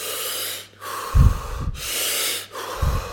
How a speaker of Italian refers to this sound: Dopo questo periodo in cui tratteniamo il respiro il più possibile, facciamo un respiro e tratteniamo di nuovo per 15 secondi.